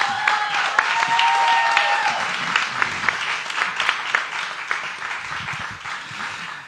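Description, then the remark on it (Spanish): An audience applauds three musicians steadily for several seconds, a dense wash of clapping hands with a few whoops early on, gradually thinning toward the end. “por favor, un aplauso a estos tres musicazos.”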